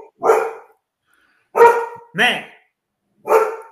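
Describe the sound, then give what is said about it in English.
A pet dog barks four times, sharp harmonic barks separated by brief silences, with one bark sliding into a whiny yip. A man's voice is faintly present. “apologies no, that's my dog.”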